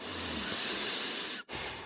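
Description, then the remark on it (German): A steady, airy hiss of breath drawn in through the nose, carrying a thin whistling tone, lasts over a second before a brief pause and then resumes softly. No one speaks. “Ja, ich pfeife beim, beim Atmen, ne?”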